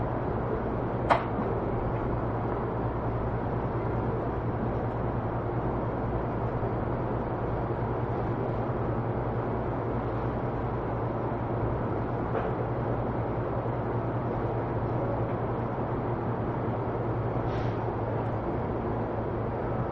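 A JR E231 series commuter train running between Narita and Abiko, Japan: a steady, loud rumble with a low droning hum throughout, a few brief high squeals or clicks rising above the noise, and no voices.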